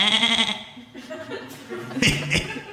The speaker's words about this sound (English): Uh, that's my pet goat, Chester. He's my partner in crime. Ain't that right, Chester?